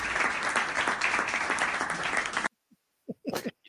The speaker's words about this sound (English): Successfully um, drawn the round of applause there.